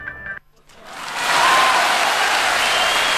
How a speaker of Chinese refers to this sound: 我们现在先掌声有请出创业者